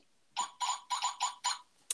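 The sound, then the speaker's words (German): An old Three Investigators (drei Fragezeichen) safe with a loose contact beeps nonstop after its door is lightly touched: five evenly spaced electronic beeps in a steady pulsing rhythm, shrill and buzzy, with a short chirp at the end and no voices. “ich habe so einen von den drei Fragezeichen so einen alten Tresor und der hat einen Wackelkontakt. Wenn man die Tür leicht berührt, fängt er irgendwie so fünf Minuten lang an, Dauer zu piepen.”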